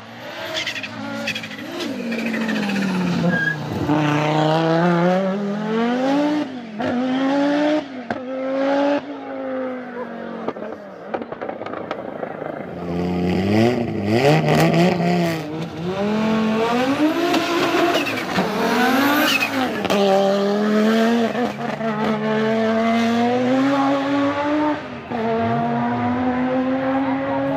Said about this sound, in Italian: però viene in mente il 5 cilindri Audi sulle gruppo B e sulle IMSA, un mostro di potenza e nonostante il turbo un suono mozzafiato, assolutamente e indiscutibilmente legato all'Audi, un vero e proprio marchio di fabbrica.